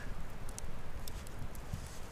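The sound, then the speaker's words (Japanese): A campfire crackles steadily, with a soft low roar and a handful of sharp pops scattered through, with no voices. “うんでもね滝の話してるとね炎がちっちゃくなったんですよね これやっぱ関係あんのかな、見てる見てないって関係あってほしいけどね”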